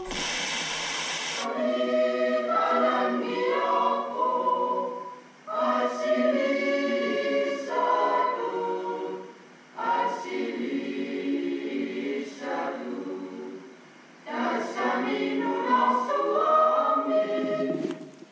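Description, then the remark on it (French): A church hymn sung slowly in four long, sustained phrases separated by brief pauses, the voices holding steady harmonious notes at an even volume, opening with a short burst of hiss. “Alors en fait, c'est le seul cantique auquel on aura droit aujourd'hui, parce que ce matin, je suis allée à l'église et que l'église était fermée.”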